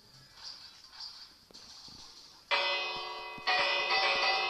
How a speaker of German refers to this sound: Habt ihr die Glocke gehört? ist von mir. Ich habe hier extra Glocken aufgehen.